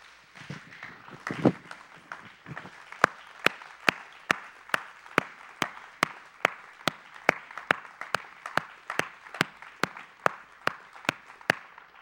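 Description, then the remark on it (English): A church audience, standing to its feet, claps in steady unison, sharp claps falling in a fast, even rhythm after a ragged start, over a low murmur of voices and shuffling. “and everybody that believes all things are possible, stand to your feet. And only if you believe that and clap and say, Amen, only if you really believe that.”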